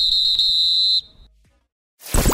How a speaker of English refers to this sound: If this were a real bit of extra time, this is when the ref will blow the whistle because it's finished.